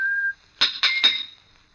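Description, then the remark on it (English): A person in a monumental mason's yard whistles a short, bright tune: one steady held note, then three quick rising chirps that trail off into a sustained high tone. It's clear, with no talking. “From the yard itself came a cheery whistle, the noise of hammer blows and the cold sound of steel meeting stone.”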